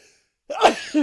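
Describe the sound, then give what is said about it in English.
A single sharp sneeze bursts out, a short breathy explosion followed by a brief voiced trailing sound, with silence before it. “bless you”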